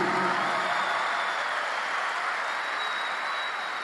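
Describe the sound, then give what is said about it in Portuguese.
A large church audience claps loudly and continuously for God after a Bible reading, a dense wash of applause that holds steady for several seconds with no voices standing out. “Quem pode aplaudir bem forte a Ele?”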